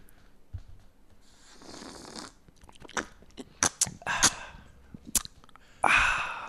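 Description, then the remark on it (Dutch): Close-up sipping from a drink for an ASMR recording, the microphone unusually close, with a soft slurping draw, a series of wet mouth clicks and gulps, then a louder breathy swallow at the end. No talking. “Het ding is van, zo neem ik elke slok. Maar normaal gesproken is de microfoon niet zo dichtbij.”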